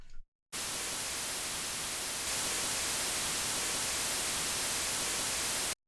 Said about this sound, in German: Dann gucken wir mal, wie laut wir das Ganze absenken sollten. Also hier mal das Rauschen. Und wir können sehen, Jetzt bin ich hier bei minus 24,90 und jetzt mache ich mal den Hit-Button an.